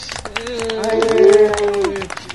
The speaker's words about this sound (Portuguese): Hoje nós comemoramos o Dia Nacional do Podcast. Cadê os aplausos?